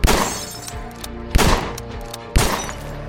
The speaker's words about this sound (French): Clyde relève son fusil ils se mettent à tirer à travers la porte et les fenêtres